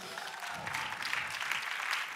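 Audience applause, a steady wash of many hands clapping at once, dense and fairly even in loudness for a couple of seconds with no voices standing out.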